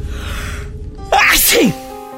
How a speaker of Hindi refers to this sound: उसने एमसीबी के स्विच को ऊपर करने के लिए जैसे ही अपना हाथ आगे बढ़ाया कि उसे बड़ी जोर की छींक आई